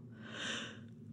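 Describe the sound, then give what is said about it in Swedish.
A single drawn-out breathy yawn, fairly soft, swelling in the middle and fading over about a second, with no talking. “Oj, förlåt, jag gäspar.”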